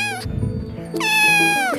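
A cat meows twice, a short cry followed by a longer, drawn-out wavering meow, loud and clear with no talking.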